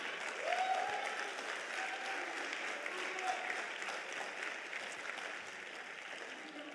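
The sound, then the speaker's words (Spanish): A crowd claps steadily and densely for several seconds, a sustained wash of applause with a few faint voices calling out within it. “¿Alguien quiere aplaudir o algo?”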